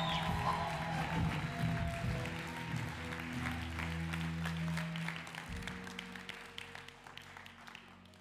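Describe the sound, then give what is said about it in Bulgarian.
A crowd claps and cheers steadily at a speaker's call to clap and shout if they believe, the dense applause holding loud throughout over sustained low instrumental tones, then thinning slightly near the end. “О, ако пляска, ако вярваш! Извика, ако вярваш!”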